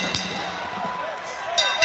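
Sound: wrestling ring bell ringing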